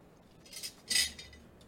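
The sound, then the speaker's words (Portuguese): A pizza cutter works through a slice of pizza on a plate, with a couple of short, crisp scraping clinks of metal against ceramic, fairly quiet. “cortar gente... um pedaço dessa pizza aí,”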